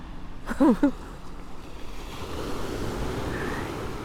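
Ocean waves wash onto a beach at sunset on a Sunday in a steady, rushing surf that swells louder midway and continues throughout, with a brief voice-like sound near the start.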